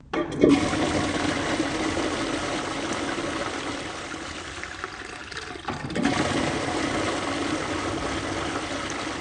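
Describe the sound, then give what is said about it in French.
A child flushes a toilet: a sudden loud gush, then a steady rushing, hissing swirl of water that dips briefly before surging again and running on to the end. No voices. “Une seconde, je vais aux toilettes.”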